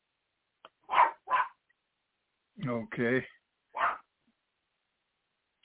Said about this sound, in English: I hear your dog barking in the background.